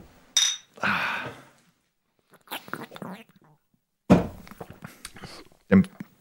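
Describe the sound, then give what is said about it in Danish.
Bottles of alcohol-free wheat beer clink together once in a bright, ringing toast, followed by a few dull knocks and thuds as the bottles are handled and set down, with faint voices in between. “Kan vi ikke lige starte skål. med det? Jo, lad os skål.”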